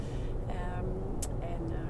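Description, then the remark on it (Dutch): Steady low rumble of a car interior while driving, constant road and engine drone throughout, with a brief sharp click partway through and faint voice-like murmurs in the background. “dus we doen weer even een podcastje uit de auto.”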